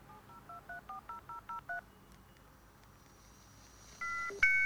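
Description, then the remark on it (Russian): A dial-up modem dials out with eight quick, evenly spaced touch-tone beeps, then a quiet hiss of open line before loud, steady connection tones kick in at the end. No voices. “Да, так звучали модемы.”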